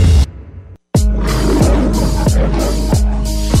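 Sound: lion roar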